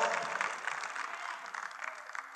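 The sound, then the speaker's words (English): An audience claps their hands for God during a preacher's sermon, a dense, steady burst of applause that fills the whole short stretch, sustained and fairly loud without pausing. “Clap your hands for the blessed God that shall come down and bring us help.”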